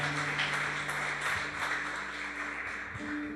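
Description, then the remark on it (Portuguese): An audience applauds the Holy Spirit of God in a dense, steady wash of clapping that holds throughout, with a sustained low keyboard tone humming underneath. “Você pode aplaudir o Espírito Santo de Deus?”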